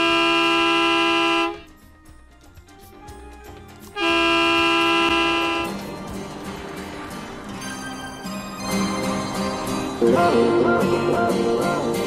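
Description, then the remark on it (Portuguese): A loud, sustained horn sound effect blares in two long blasts separated by a brief gap, played as a celebration, followed by a busier stretch of overlapping honks and clamor that grows louder toward the end. “Bota a buzina aí, por favor, pra gente comemorar. Isso merece uma comemoração, essa buzina é muito boa.”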